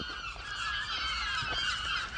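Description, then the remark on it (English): Dense chorus of about a thousand seagulls calling over one another where a person is walking, a steady overlapping clamor of squawks filling the whole stretch, fairly loud and continuous with no one speaking. “By the way, there's like a thousand seagulls where I'm walking right now, so if you hear a bunch of seagulls, well, you know why.”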